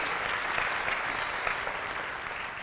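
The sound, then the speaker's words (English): An audience applauds the choir steadily, a dense, even wash of many hands clapping at once that holds for a few seconds without letting up, with no voices standing out. “Let's give our choir a hand clap.”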